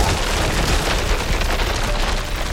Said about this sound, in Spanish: en algún lugar de la zona que hacía mucho se hizo llamar Alemania, en un túnel enclavado en una montaña cercana al río Weser, las piedras que tapaban su entrada se vinieron abajo.